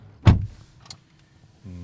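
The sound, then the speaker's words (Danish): A single heavy door of an electric car thuds shut as people get in, followed by a faint click and quiet interior stillness, then a low hum begins near the end. “Nå, så er vi kommet indenfor i bilen.”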